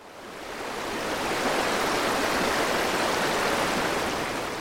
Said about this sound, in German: Ein Gebirgsbach in Norwegen. Eiskalt, klar, zum Reinspringen schön.